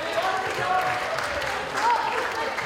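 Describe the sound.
A crowd of people claps steadily for a few seconds, a dense, continuous patter of applause with a few voices and cheers mixed in, applauding a team just awarded four points.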